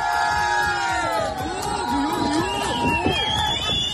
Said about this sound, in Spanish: está vitoreando directamente a los narcotraficantes. Aplauden y se mofan por cómo los narcos esquivan la embarcación de los agentes